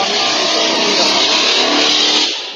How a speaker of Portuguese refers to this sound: Passou a moto aí. Aqui não foi. É a moto, passou aqui, passou aqui passou, uma moto aqui.